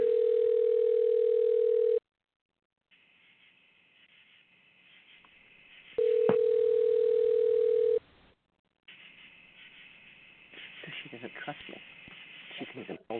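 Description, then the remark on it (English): A steady phone ringing tone sounds twice as a call is dialled, each a loud two-second hum separated by a long pause, with faint muffled background noise and indistinct voices in the gaps. “It doesn't work because of the um, the ringing here.”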